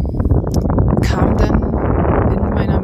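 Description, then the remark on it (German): Loud, continuous rumbling wind buffets the microphone, a dense low roar with gusty fluctuations and occasional brief rustling bursts, steady throughout with no clear speech. “oh, jetzt ist der Wind gerade ganz doll.”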